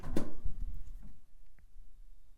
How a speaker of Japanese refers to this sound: で続いてこちらこれがね僕が今もう一回いこうかな僕が今喋ってるスタジオの扉の音もう一回聞いてもらおうかな